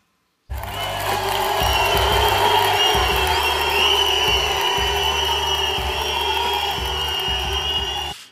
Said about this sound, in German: Unser Fanvoting voll auf die Zwölf geht heute zurück auf die Jahreshauptversammlung der Bayern, als Uli Hoeneß doch einige Pfiffe zu hören bekam. Da schauen wir mal kurz rein.